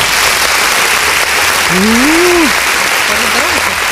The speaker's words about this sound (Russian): Артист экстремального жанра, факирского и огненного шоу, актер-каскадер, дублер-каскадер, а, под ваши бурные аплодисменты.